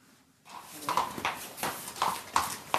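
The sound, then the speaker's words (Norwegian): The hooves of the trotting horse Yara Boko clip-clop in a steady trotting rhythm, fairly clear, with sharp repeated strikes over a low background hum. “I går reiste han og hesten Yara Boko til Frankrike for å delta i det som gjerne kalles verdens største og mest prestisjefylte travløp.”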